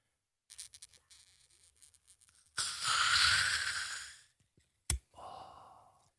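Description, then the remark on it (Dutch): Faint creaking twists of a bottle cork as the cork is held in the hand and the bottle is turned, then a soft, breathy hiss of gas escaping for over a second as it eases out, followed by a small click and a short rustle. “Oké, dus wat je doet, je, je houdt de kurk in je hand en je draait de fles een ja. En dan moeten we even heel goed luisteren.”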